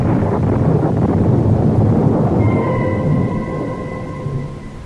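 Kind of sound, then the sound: sound effect, thunderstorm with rolling thunder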